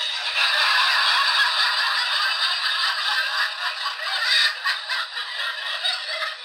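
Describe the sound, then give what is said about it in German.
A canned burst of sitcom-style crowd applause played from a sound machine, a dense, crackling wash of many hands clapping that stays loud and steady for about six seconds, with no voices over it. “Also wir haben zum Beispiel hier, äh, wenn ich jetzt äh, einen Witz erzähle, dann ja, dann könnte ich, äh, könnte ich es klatschen lassen oder natürlich auch ganz klassisch im Sitcom-Style.”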